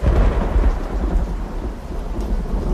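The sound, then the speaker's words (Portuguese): Deep, loud thunder rolls through a storm with strong wind as lightning bursts across the sky, a heavy low rumble that sustains without letup, with steady rain hissing underneath and no voices. “Um relâmpago estoura os céus.”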